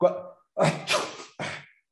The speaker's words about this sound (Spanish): Salud, no es COVID. lo hice a propósito. En este momento estábamos platicando, de repente yo estornudo y tú me contestas salud.